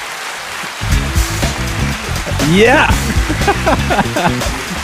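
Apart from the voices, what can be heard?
applause sound effect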